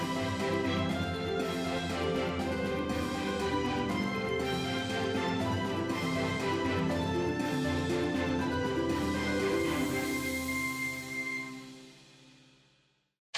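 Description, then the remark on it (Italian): The Storie di Vapore theme tune: a full-band instrumental plays steadily with sustained harmonic tones and a driving rhythm, loud and continuous for about ten seconds before fading out to silence. “queste sono le nostre storie di vapore e mentre parte la sigla tirate su iniziativa.”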